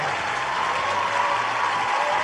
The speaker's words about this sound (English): Come on now. Give me some applause, people. There we go. There we go. There we go.